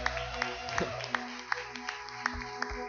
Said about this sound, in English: Can we clap our hands for those who made that decision today?